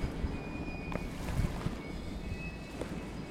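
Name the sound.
train rolling back and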